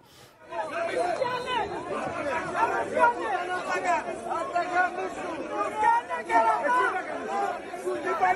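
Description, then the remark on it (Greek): A tense football crowd scuffle in Megara, with many people shouting, yelling and cursing over one another, a dense, agitated wall of overlapping voices that keeps going without a break. “ακούγονται και κάποια έτσι. Κάτι γαλλικά. Ελληνογαλλικά. Αυτά γινήκανε στα μέγαρα”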